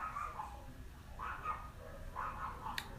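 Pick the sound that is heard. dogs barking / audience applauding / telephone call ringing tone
dogs barking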